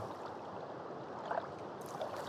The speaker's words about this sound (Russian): В обертке лежала морская ракушка – она была такой же белой, как галактическая туманность. Я инстинктивно приложила ракушку к уху. Она была сделана в форме спирали. Из завитка был слышен шум волн.